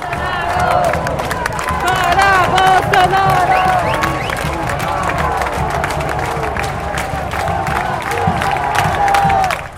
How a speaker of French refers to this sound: week-end dernier, il y avait en plus euh, les cris de centaines de milliers de manifestants réunis sur l'avenue Paulista.